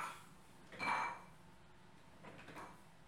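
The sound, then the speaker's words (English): A dog's metal food bowl, just used for a snack of rice, eggs and olive oil, clanks once with a short ringing tone, followed by a couple of fainter knocks a moment later. It's fairly quiet, with no talking. “Did y'all hear the bowl?”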